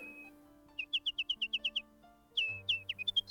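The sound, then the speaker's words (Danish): A nightingale perched on a branch outside, close to a window, sings a quick run of eight bright, evenly spaced chirps, pauses, then breaks into a varied warbling phrase, clear and close over a soft, steady low background drone. “Men så pludselig, helt tæt ved vinduet, der hørtes den smukkeste sang. Det var den virkelige nattergal, der sad udenfor på grenen.”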